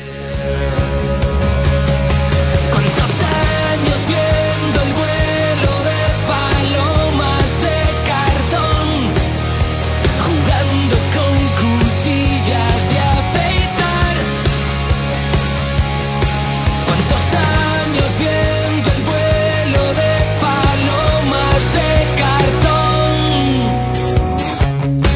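A Spanish pop-rock song plays at full volume, with a full band sound, a steady driving bass line and continuous rhythm throughout.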